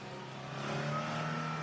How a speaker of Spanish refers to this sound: Pone en marcha el auto y parte.